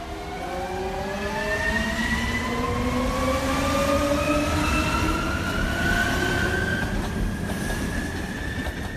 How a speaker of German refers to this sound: Langsam rollt der Zug wieder an. Immer höher geht es. Irgendwann lässt der Bernina Express die Baumgrenze hinter sich.